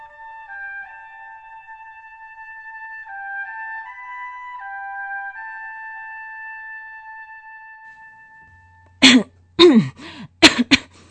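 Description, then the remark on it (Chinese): Soft, sustained musical tones hold steady for several seconds, then stop, and a short run of about four harsh, raspy coughs and throat clearing follows in quick bursts, from someone who has had a lingering illness for some time. “你这病啊，可拖了一段时间了。”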